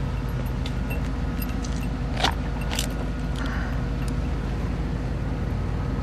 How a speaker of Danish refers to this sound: Step back. Spread your legs. Og begynder at lægge indianerne i håndjern. There you go.